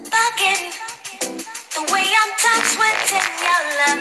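A jungle music track plays loudly and continuously for a few seconds, dense and busy, with pitched, voice-like melodic sounds layered over fast percussive hits and no one talking over it.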